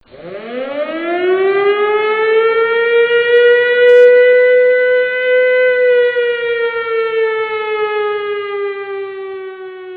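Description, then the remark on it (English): A loud civil defense siren winds up from a low pitch, then holds a steady, rich wailing tone that slowly sags lower over ten seconds, with no voices present. “Give me the siren.”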